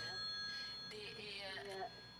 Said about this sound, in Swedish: Hör det ringer in nu? Jag ska försöka höja den volymen bara så att vi hör vad personen säger.